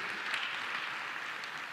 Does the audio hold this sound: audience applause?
yes